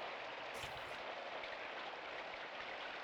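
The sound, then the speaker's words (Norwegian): Steady rain drums on a roof on an early morning while it is still a little dark, in a dense, continuous patter, soft and even throughout, with a brief swell of heavier drops near the start and no voices. “Eh, og dere hører et regn som trommer på taket.”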